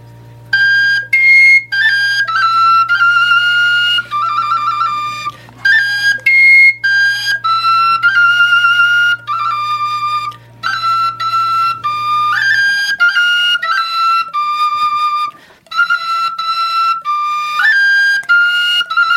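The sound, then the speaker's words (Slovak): A wooden folk pipe (píšťala) is played live, a lively solo melody of bright, breathy notes in quick phrases, fairly loud, with a low steady hum beneath the first two-thirds. “jeho krásna píšťala tentokrát.”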